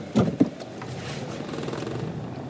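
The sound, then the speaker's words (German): A car being parked: a steady, low engine rumble with a couple of brief thumps at the start, then an even hum that holds at moderate level without any voices. “Muss ich gerade einparken.”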